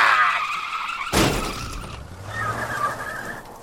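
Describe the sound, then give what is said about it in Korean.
Tires squeal in a high, wavering screech, broken by a sudden loud burst of noise; then a car engine revs up with a rising drone as the tires screech again. “사내의 차는 검은 양복 위를 사정없이 덜컹거리며 지나갔다.”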